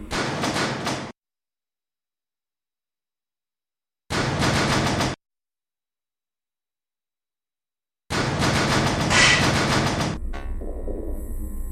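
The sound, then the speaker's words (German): A subway train at Weberwiese underground station, where the train terminates: three loud bursts of hissing, clattering noise separated by silence, then a sustained rumble that settles into a low, steady mechanical drone with a faint whine. “U-Bahnhof Weberwiese. Aus dem eingefahrenen Zug bitte alle aussteigen.”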